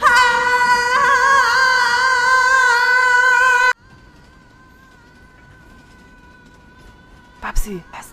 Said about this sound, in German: Sei nicht albern, da kommt eine Lore den Stollen runter.